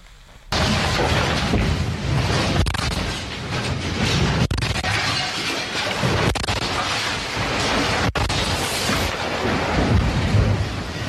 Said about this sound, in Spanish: Lo que, lo que escucha usted es el sonido ambiente. Así sonaba la Ciudad de México, los edificios que estaban golpeando unos contra otros, eh, las escenas eran de pánico, la gente estaba asustada.